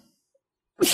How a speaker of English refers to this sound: Why don't you just sneeze twice? because you fucked it up twice.